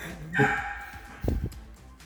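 A dog barks: one drawn-out, high, ringing yelp followed a moment later by a couple of short, deeper woofs, moderately loud with no talking.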